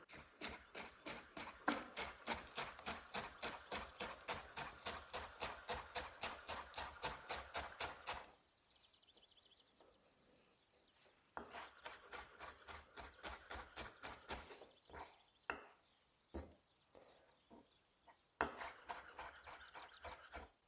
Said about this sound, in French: J'ai mis ma coriandre dans un petit bol et maintenant je vais passer mon bouquet de persil. Même histoire pour le persil. Je replie les feuilles et je le cisèle. Ça peut être un peu plus grossier, ça va partir dans la farce.